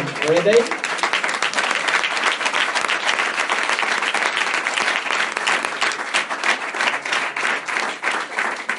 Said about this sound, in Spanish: ¿Querés aplaudir, amigo?